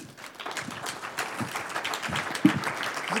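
An audience at a church service applauds together for a fellow church member, a steady wash of many hands clapping at moderate volume that holds evenly for a few seconds, with faint voices mixed in beneath.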